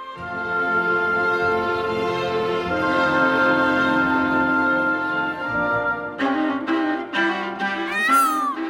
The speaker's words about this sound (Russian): Павлин